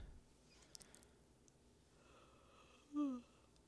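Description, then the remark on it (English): A person lets out a single brief, voiced yawn, a breathy groan sliding downward in pitch, after a few seconds of quiet room noise with faint clicks. “Don't be yawning, homie.”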